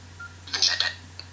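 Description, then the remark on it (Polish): A quick cluster of bright electronic key tones from a phone's number keypad as letters are typed, a few beeps bunched together, then one short, thin beep after a brief pause, over a low steady hum. “I tutaj możemy pisać tak jak pisaliśmy wcześniej, czyli klawiaturą numeryczną, czyli literka T, czyli raz 8,”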